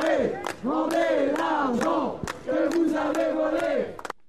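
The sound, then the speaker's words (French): A protest crowd of unions and associations (CGT Spectacle, CGT Chômage, Agir contre le chômage, Droit au logement) demonstrating against Bernard Arnault at 3 p.m. shouts in loud, rhythmic bursts, many voices chanting together in a repeated cadence of rising and falling calls that run steadily for a few seconds. “il est 15h, toutes et tous sont venus crier leur mécontentement et exprimer leur sentiment d'injustice.”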